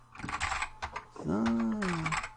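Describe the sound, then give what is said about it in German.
A short burst of computer keyboard typing while filling in a table, a few quick clicky keystrokes, followed by a drawn-out voiced sound from a person with light tapping continuing underneath. “Ich fülle mal eben hier eine Tabelle aus. Klick, klack, klack.”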